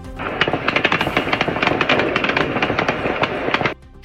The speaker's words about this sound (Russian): В местных телеграм-каналах появилось видео, на которых слышна стрельба.